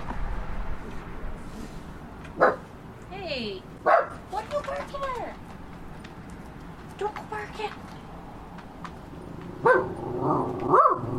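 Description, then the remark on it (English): A puppy yips and barks in short, sharp bursts, with a few higher whiny cries mixed in, while a person talks over a steady background hum. “Stop. There's nobody. There's, there's nothing down there.”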